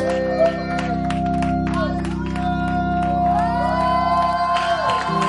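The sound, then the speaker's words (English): A large church audience cheers, screams and shouts loudly and continuously to welcome a prophet, voices overlapping with whoops and rising cries over a sustained low instrumental drone, filling the space throughout. “now let me hear you give the Lord. Best love scream. Hallelujah. Let's welcome the prophet.”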